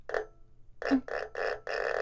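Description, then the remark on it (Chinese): An erhu bowed slowly and pressed tight so the bow catches and it creaks like a door swinging open, usable as a door-opening sound effect: one short scrape, a pause, then four rough, grinding strokes in quick succession, fairly loud with no voices. “觉得说，哎，哎，那个好像在开门呢，”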